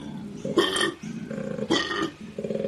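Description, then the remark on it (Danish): A koala bellows in deep, rasping, snore-like grunts, repeating in a rhythmic pattern of loud pulses with brief pauses, fairly loud, with no one talking. “Det er en koalabjørn.”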